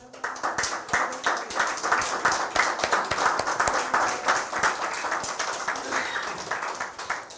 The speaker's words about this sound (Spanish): Bueno, muchas gracias por estar hoy con nosotros. Un fuerte aplauso. Uno, dos, tres.